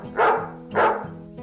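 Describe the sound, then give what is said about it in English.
A dog barks twice in quick succession, two loud, full-throated woofs about half a second apart, over a soft, steady low tone in the background. “Woof, woof, barked the dog.”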